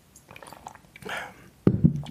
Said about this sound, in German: So, ich ganz kurz mal einen Schluck Wasser trinken.